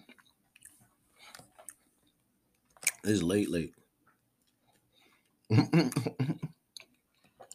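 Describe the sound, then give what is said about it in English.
Soft, irregular chewing and smacking noises of someone eating a late night snack, faint and wet, ticking along for a few seconds before a voice speaks two short phrases over them. “And late night snack, y'all.”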